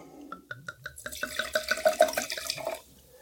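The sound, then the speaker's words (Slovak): Red wine, the third wine of a blind tasting, glugs out of a bottle into a glass in a quick run of bubbling gurgles, building for a couple of seconds before tapering off. No one speaks. “tak uh, si majster, lebo podľa žblnkova, žblnkotania počuješ.”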